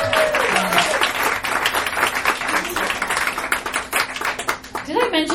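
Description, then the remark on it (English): An audience breaks into a sustained round of applause, dense overlapping claps at steady loudness, with faint voices and cheers mixed underneath. “Give him a big round of applause.”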